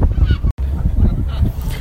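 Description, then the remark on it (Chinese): Harsh, honking calls of seagulls following a boat and circling above it repeat in quick, uneven bursts for a couple of seconds, loud and continuous except for one brief dropout, with a low rumble running underneath. “看海鸥还在跟着我们”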